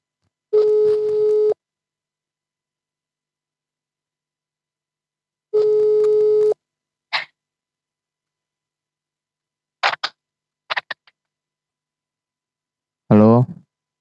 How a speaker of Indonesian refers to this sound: ya karena berhubung sedang pandemi jadi gue nggak bisa untuk ngobrol langsung jadi gue mencoba untuk ngobrol lewat telepon coba gue telepon orangnya